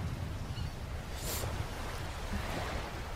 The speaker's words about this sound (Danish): Det er måske lidt stille vandet, men altså, det regner, og... Ja, det er lidt stille.